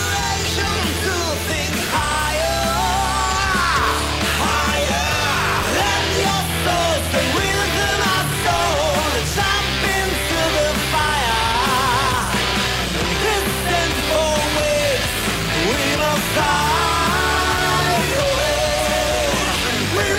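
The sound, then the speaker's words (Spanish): A loud, dense recording of a song composed by the band itself plays throughout, with driving full-band instrumentation and shouted English vocals riding on top, steady and continuous for the whole stretch. “Todos los temas eh, compuestos por ustedes, eh, todos en inglés, menos los, bonus.”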